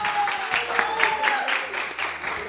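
Steady studio applause from a small group, a dense crackle of many hands clapping continuously at an even level for a couple of seconds, with no voices over it.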